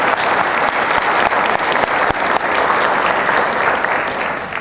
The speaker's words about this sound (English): Could we give them a big round of applause? Thank you all so much.